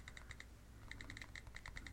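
computer keyboard typing clicks

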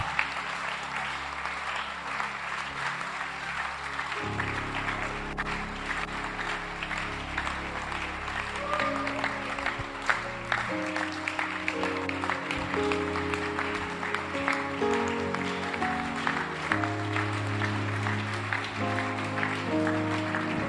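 audience clapping

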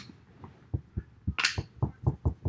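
knuckles knocking on wood

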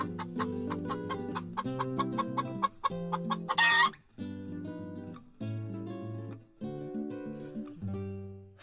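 chickens clucking

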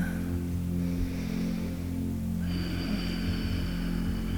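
cat purring

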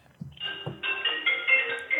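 phone ringtone ringing

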